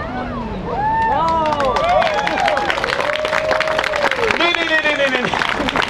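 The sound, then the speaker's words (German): Weak, scattered audience applause in Hannover after a ladder acrobatics act, lasting about six seconds, with thin clapping mixed with overlapping whoops and rising and falling voices from the crowd at a fairly steady, moderate level. “Das, was ihr eben gemacht habt, das war kein Applaus.”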